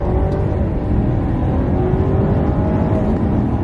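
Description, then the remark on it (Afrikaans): An armoured car accelerates hard from 0 to 100 km/h, taking about 5.4 seconds by a passenger's stopwatch, its engine a loud, steady roar with harmonics climbing gradually in pitch as it gains speed, continuous throughout with no talking. “En as jy nou wonder oor die 0 na 100 km/h in 5 sekondes,”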